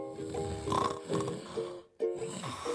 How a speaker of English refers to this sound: I will lay there pretty much all night staring at the ceiling, while my wife snores next to me.